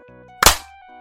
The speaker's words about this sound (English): Okay, so uh, doing a sync clap in mm-hmm. three, two, one.